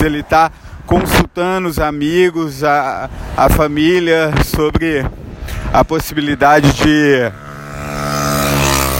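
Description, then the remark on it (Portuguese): A man talks over steady road noise as cars go by on a road where he has just been running. Near the end a single vehicle swells past, its rushing whoosh growing louder once the talking stops. “Bom, é, vocês estão ouvindo aí, fazer um parênteses, peço desculpa pelo barulho, pelo barulho dos carros. Eu estou numa estrada, eu acabei de correr”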